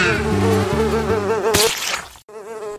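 A housefly buzzes loudly, a steady droning whine that wavers in pitch as it flies, cutting out briefly near the end before resuming. No one speaks.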